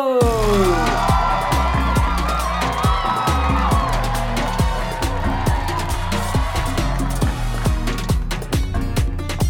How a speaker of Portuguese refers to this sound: Sendo assim, eu quero terminar esse episódio pedindo uma salva de palmas para nosso carteiro palhaço!